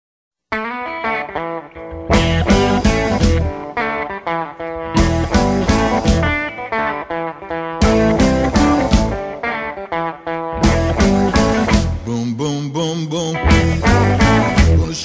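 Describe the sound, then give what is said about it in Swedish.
A blues song driven by a loud electric guitar riff, punctuated by full-band hits every few seconds, playing steadily without any singing. “Och då ska vi köra ….”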